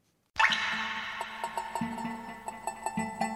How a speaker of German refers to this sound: Wenn es tropft, Blasenschwäche und Inkontinenz.